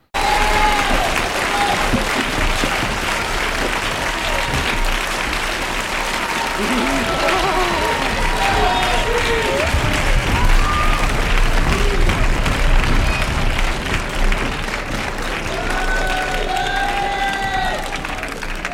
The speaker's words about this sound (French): et puis que vos convives déclenchent pour vous, et les réalisateurs et les comédiens, une salve d'applaudissements.